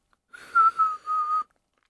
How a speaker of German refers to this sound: Dann konnte ich erstmal nur mit dem Einatmen pfeifen.